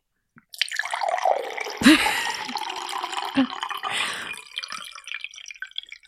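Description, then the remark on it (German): Water is poured into a glass, splashing and trickling steadily for several seconds, with a few louder plops and gurgles along the way, then tapers off into faint drips. “Kannst du mir mal ein bisschen Wasser einschenken?”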